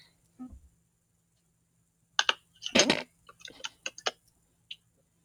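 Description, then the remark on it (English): Someone typing aggressively on a keyboard: a quick burst of sharp, clacking keystrokes, hammered hard in uneven clusters after a brief murmur, fairly loud against a quiet background hum. “You just hear me aggressively typing.”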